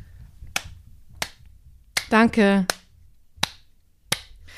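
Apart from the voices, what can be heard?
slow hand clapping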